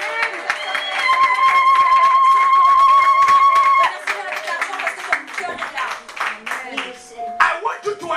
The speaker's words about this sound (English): Clap your hands and give praise.